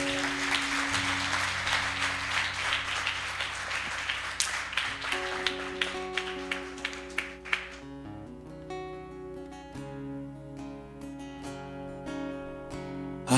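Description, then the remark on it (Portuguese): A crowd applauds the name of Jesus with dense, steady clapping over a sustained musical backdrop; the clapping thins to scattered claps after about seven seconds while the music carries on. “Aplauda o nome de Jesus.”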